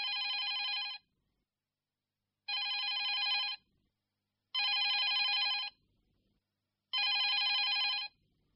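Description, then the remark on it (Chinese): A telephone rings four times in even bursts, each about a second long, separated by pauses: a bright, buzzy electronic trill with no voices over it. It is an early-morning call. “嗯，谁呀这么讨厌？大早上就来电话。”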